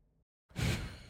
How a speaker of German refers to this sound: das ist ein Papier. Ja, das, ist sie hat gerade jetzt äh, wirklich. Das kannst du dir nicht vorstellen. sie hat sehr dramatisch das Blatt Papier umgedreht so, äh, und äh, mich, dabei angeguckt